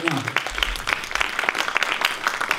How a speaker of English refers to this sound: Come on, give God a big hand here in this place right now. You can do that